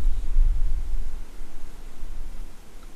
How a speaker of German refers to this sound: Da kommt der Wind wieder